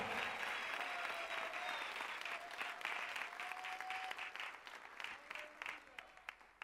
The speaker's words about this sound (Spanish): Si lo creas, dale un fuerte aplauso a nuestro amado Espíritu Santo.